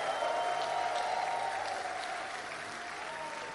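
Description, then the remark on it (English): An audience claps their hands in praise to God in steady, dense applause that fills the whole clip, many hands blending into a continuous wash of sound with a faint murmur of voices underneath. “Come on, clap your hands, give God a praise right now.”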